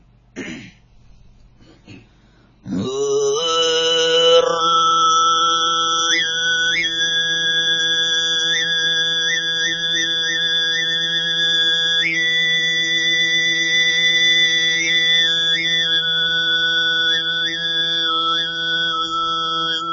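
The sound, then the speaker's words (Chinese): Mongolian whistle-tone throat singing (khoomei), in which the tongue is pressed against the upper palate: a steady, buzzing low drone with a piercing whistled overtone above it that steps between pitches in a simple melody. It begins after a few soft throaty noises. “好，接下来演奏，演唱一首呃哨音红麦。”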